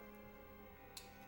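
A single soft metallic clink of a spoon against a cereal bowl, brief and faint against a quiet, steady background hum, with no talking.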